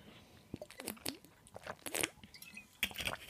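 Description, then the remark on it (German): Someone takes a sip of water: a short run of wet mouth clicks and small gulping swallows, quiet and intimate, with no talking. “Das war ja nur ein bisschen, ich trinke mal einen Schluck Wasser, vielleicht hilft mir das.”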